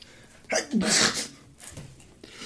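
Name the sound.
person imitating a sneeze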